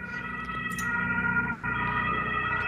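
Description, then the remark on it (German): An ambulance siren sounds steadily, a sustained tonal wail that carries through the whole moment with a brief dip, heard faintly from outside with no talking. “Dieser Ton wird erklingen, wenn Nintendo Super Mario 3D World auf die Switch portet. Weil der Krankenwagen mich nämlich abholen muss dann.”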